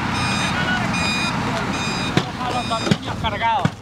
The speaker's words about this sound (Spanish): El sonido que, estamos escuchando es el de las excavadoras, ¿no? Mientras derribaban eh, ante la mirada de, que los que habían sido sus residentes, ¿no?